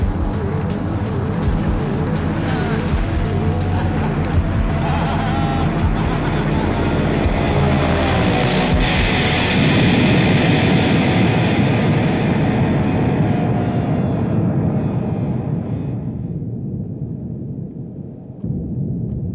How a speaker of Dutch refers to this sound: En dat zit helemaal aan het eind, op het moment dat het vliegtuig ontploft.